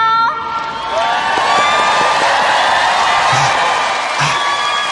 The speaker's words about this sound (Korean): 자 오래 기다리셨습니다. 이제부터 우리 학교가 낳은 최고의 자랑 락밴드 동아리의 전설 …의 무대가 펼쳐지겠습니다 여러분 뜨거운 박수로 맞이해주세요